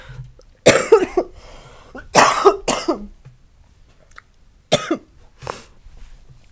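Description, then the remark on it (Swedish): A person coughs about five times in harsh bursts, two pairs and a final single, separated by short quiet pauses with no talking. “Ha med de här hostningarna.”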